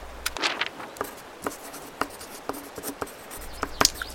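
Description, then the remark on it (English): A pen scratches across paper in short, irregular strokes, a series of soft scribbles and light taps as notes of two birds, cardinals, are jotted down on a list, with no talking. “I'm going to make a note of these two birds on my list.”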